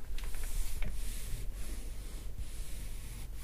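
Soft rustling and faint creaks of supple goat leather, nourished during the tanning process, being handled and flexed, a quiet continuous friction with a few brief scuffs, no voices.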